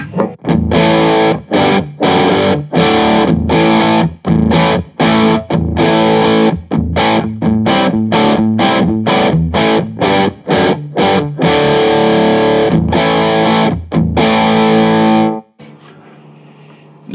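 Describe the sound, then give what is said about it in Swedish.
Loud, heavily distorted electric guitar through a cold-biased EL34 tube amp, playing tight rhythmic chugs and chords for about fifteen seconds before cutting off, leaving a faint amp hum. “Då blir det exempel eh, nummer fem här då. Kaldställ bias på EL34.”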